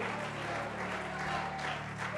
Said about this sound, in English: Praise God. I think we ought to give a little bit of a better hand clap than that.